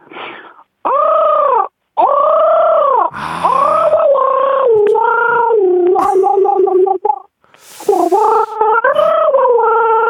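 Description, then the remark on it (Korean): A person imitates a crow with a run of loud, drawn-out, nasal caws in close succession, with a short raspy, throaty burst partway through. “자 그리고 그 까마귀도 하겠습니다.”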